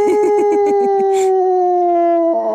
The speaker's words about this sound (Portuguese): Quem tem um cão como Faial não precisa de bruxedos para despachar visitas chatas. Basta pô-lo a uivar